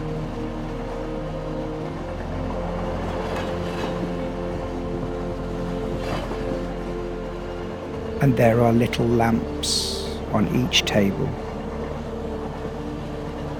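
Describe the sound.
A train rolls steadily along the rails, its low, continuous rumble and hum filling the background while a calm voice speaks briefly over it midway through.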